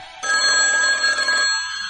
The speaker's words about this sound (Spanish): Teléfono.